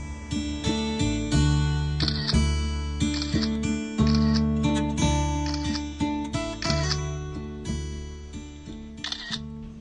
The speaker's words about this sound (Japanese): さあ周りの音聞こえるでしょうかシャッター音ですとかスリッパの音ちょっとね慌ただしい感じがあるんですけどこのコーナーは夏号の撮影真っ最中のキッチンスタジオからお届けしています